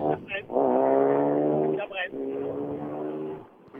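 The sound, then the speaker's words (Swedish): A six-cylinder car engine drones with a steady, buzzing tone in two long sustained stretches, split by a brief dip, holding roughly even loudness before fading slightly at the end. “Det är mer sexcylindriga till skogen.”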